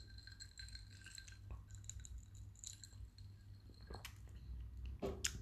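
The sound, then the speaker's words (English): Quiet sipping of Mount Gay rum from a glass: a few faint glass clinks and soft wet slurping sounds over a steady low hum, with a brief sharper clink near the end. “And on that, before I digress, let me have a zip of my Mount Gay.”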